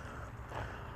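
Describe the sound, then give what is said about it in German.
Soft crunching footsteps on loose white gravel in a park rose garden, a few quick steps, quiet and steady with a faint outdoor hiss in the background and no talking. “und meine Schritte auf den weißen Kies in diesem wunderbaren Park lassen dich ahnen, dass ich hier an einem Platz bin, der irgendwie mit der Natur verbunden ist.”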